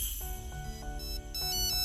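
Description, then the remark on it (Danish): A telephone rings with a bright, melodic ringtone, a short series of electronic tones that plays loudly and clearly on its own for about two seconds, with no talking. “Nå, så er der nok et barn, der ringer til julemanden.”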